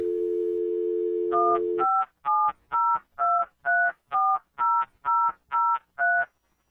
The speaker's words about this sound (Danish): Så havde jeg, fik jeg vist også nogenlunde samtidig net derhjemme med sådan noget, ja, med sådan et modem, med den karakteristiske lyd der.